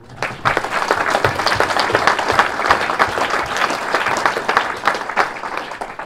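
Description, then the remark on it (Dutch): A crowd applauds steadily for about six seconds, many hands clapping in a dense, continuous patter at an even, fairly loud level, with no voices. “Dus ook voor hun uiteraard een eh, heel groot applaus.”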